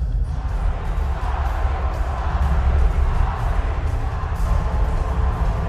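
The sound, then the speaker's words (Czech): A large rally crowd of several thousand people in an exhibition hall on the edge of Perpignan, France, chants "Marine, Marine" for Marine Le Pen in a dense, continuous roar, loud and steady throughout, with rhythmic surges of many voices blending together and no single speaker standing out. “Dav skanduje Marin, Marin a z velkého modrého M vystupuje na pódium Marin Lepenová.”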